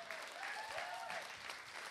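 An audience at a hip hop event claps steadily for the performers in a dense, continuous wash of applause, with faint overlapping voices and a few whoops rising above it.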